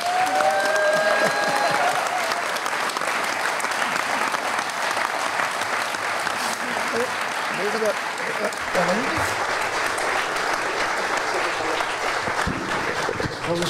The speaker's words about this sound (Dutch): De man die ons al ons hele leven fascineert. Die grappige, eigenzinnige, slimme, lieve Willem van Hanegem. Applaus voor Willem.